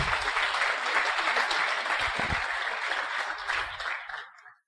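A crowd applauds for leaders who were on a leadership trip in Cancún, a steady, dense wash of clapping from many hands that holds strong for several seconds and then tapers off at the end, with no one speaking over it.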